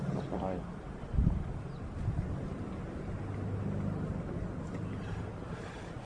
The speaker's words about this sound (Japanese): ちょっと風敵だな、やっぱ今日。風強いですね。うん。どこ行ってもその隙間から強風が吹くっていうさ、なんか一定方向じゃない感じ。